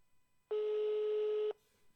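A single telephone ringing tone as a call is placed to someone previously interviewed: one steady, mid-low electronic beep lasting about a second, loud and clear over quiet line hiss, then the line goes quiet again.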